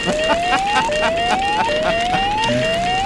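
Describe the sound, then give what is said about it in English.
A truth-meter 'pants on fire' sound effect, the one used for lies, of repeated rising siren-like whoops, four steady upward sweeps in quick succession, loud over a faint murmur in the background. “we can actually hear the truthometer pants on fire one, the one that sounds like when they lie”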